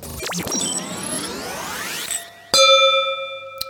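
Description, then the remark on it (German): A sweeping, shimmering glassy ring with swirling tones, then a sharp clink of two wine glasses touching in a toast, leaving a bright, sustained ringing tone that fades slowly. No voices. “Wenn man so gierig ist, dass man das Glas nicht ausklingen lässt und dann direkt lostrinkt, dann weiß man, man ist Genießer.”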